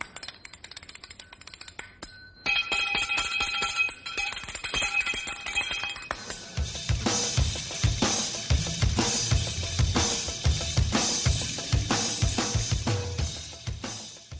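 Bright metallic clacking of spoons played as percussion rattles in a quick rhythm, then a full, loud rock band crashes in around the halfway point with heavy drums driving underneath.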